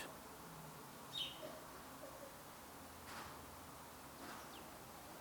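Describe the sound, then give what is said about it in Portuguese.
A few faint, sparse small-bird chirps sound outdoors on a sunny, slightly breezy day, one brief high call standing out over a soft, steady background hiss with light rustling. “Eu não sei se vocês conseguem ouvir os passarinhos.”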